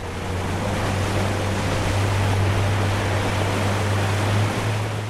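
The engine of the motorboat Blue Thunder drones low and steady beneath loud rushing water and wind, as if heard from on board, as the boat speeds from the green buoy out onto the open ocean on a windy day for whale watching. No one speaks.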